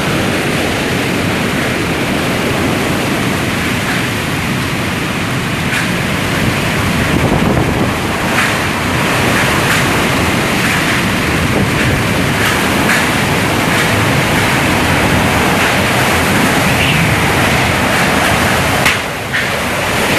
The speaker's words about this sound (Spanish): Más adelante seguiré presentándole audios del paso del huracán para documentarlo y ustedes tengan la oportunidad de tener la misma perspectiva mía de escuchar el paso del huracán María por Puerto Rico.